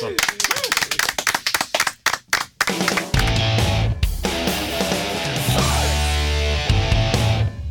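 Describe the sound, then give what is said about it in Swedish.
A few seconds of brisk, uneven hand clapping from a small group, then the clapping gives way to steady music with a strong low beat that carries on to the end. “En applåd va?”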